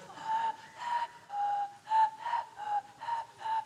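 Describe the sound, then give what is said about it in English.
A high, steady whistling tone made with the vocal cords, produced in about eight short, evenly paced bursts, fairly loud, with no talking. “I can whistle with my vocal cords.”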